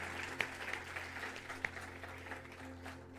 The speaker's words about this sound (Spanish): Felicitaciones. Felicitaciones. Felicitaciones. Felicitaciones, fuerte aplauso, por favor. Felicitaciones a toda la familia.